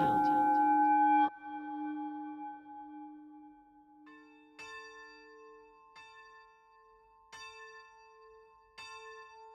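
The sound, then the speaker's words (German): Church bells ring out in a peal, one deep resonant strike lingering before a lighter bell chimes repeatedly in a steady rhythm, bright with long humming overtones. “Wenn ich ein Geläut höre, dann harmonisiert das in mir irgendwas.”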